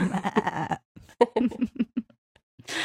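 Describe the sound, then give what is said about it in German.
A person does a wavering sheep-like bleat, a quavering voiced "baa" lasting under a second, followed by a few choppy voice fragments and a burst of breathy noise at the end. “oh, ein Schaf kann ich,”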